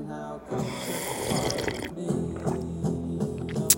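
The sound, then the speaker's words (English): A loud slurp of someone sipping coffee from a mug, a wet sucking rush lasting over a second, followed by a low satisfied hum. “Coffee cheers to a beautiful day.”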